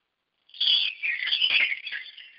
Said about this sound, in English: So I was in a music store yesterday, and I looked at a chime, a beautiful chime, and I thought, wow, this would be great for what I do.